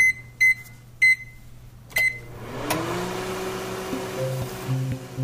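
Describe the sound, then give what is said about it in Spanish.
Three short electronic beeps sound a beat apart, then a microwave oven kicks on with a click and settles into a steady humming whir with a low drone underneath. “Ok, listo, activando microondas.”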